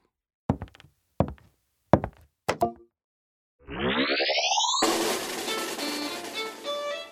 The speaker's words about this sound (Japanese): というわけで券売機をスイッチオン